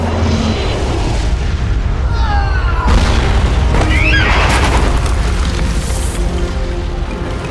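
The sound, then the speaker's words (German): A huge magical explosion as an amulet discharges a magic beam: a loud, sustained roar with deep booming rumble, laced with shrieking, sweeping whistle-like tones that rise and fall, lasting several seconds without fading. “Mit einer gewaltigen Explosion entlud sich ein magischer Strahl, der den Raum in allen Farben eines Regenbogens erfüllte und die schattenhafte Gestalt der dunklen Freya in Stücke riss.”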